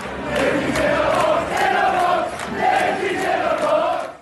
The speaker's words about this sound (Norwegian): Der blir det spredd klipp som det her, av fotballsupportere fra et irsk lag som lystig synger 'Lissis In A Box'.